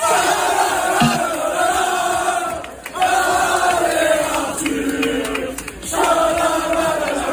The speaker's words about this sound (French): Résultat, comme lors des qualifs sur les petits cours de Roland Garros, beaucoup de bruit dans les tribunes.